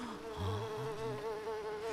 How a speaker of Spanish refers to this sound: mire las moscas. Ahora le están llegando a los dientes a la Bolonia.